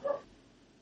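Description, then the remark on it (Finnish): A single short, muffled bark from a neighbor's dog sounds from behind a wall, then fades into quiet room noise. “nyt muuten, jos, tässä kuul, jos kuuluu takana koiran haukuntaa, niin mä voin kertoa, että se on naapurin koira.”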